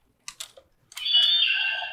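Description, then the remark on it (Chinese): A coin is pulled out of a plastic Blazar transformation-device toy: three or four quick, sharp clicks and rattles, then a steady, bright electronic tone that sounds for about a second. No one speaks. “哦，不好意思，我把那个硬币拔出来。”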